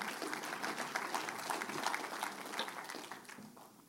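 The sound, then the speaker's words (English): An audience claps steadily for Jesus for a few seconds, a dense spread of overlapping hand claps at an even, moderate loudness that tapers slightly toward the end, with no voices heard. “You can clap for that, just Jesus, not me.”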